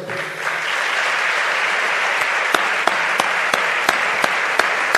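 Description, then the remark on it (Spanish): A crowd in Sevilla applauds in remembrance of Pascual González, steadily in a dense, sustained wash of clapping, with a few sharper individual claps popping out in a loose rhythm toward the end. “El recuerdo ahora a Pascual González aplaude el propio Juan Carlos Cabrera.”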